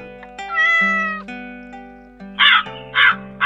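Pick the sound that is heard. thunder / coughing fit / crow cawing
crow cawing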